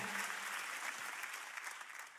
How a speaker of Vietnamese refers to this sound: Tôi xong rồi, David cảm ơn rất nhiều. Hãy vỗ tay cho David của chúng ta.